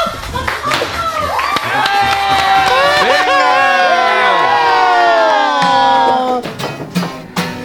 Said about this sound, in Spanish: Con todos ustedes, un fuerte aplauso.